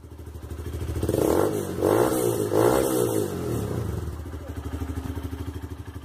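A motorcycle engine on the street idles with a steady low putter, then revs up in three rising bursts before settling back to a rhythmic idle.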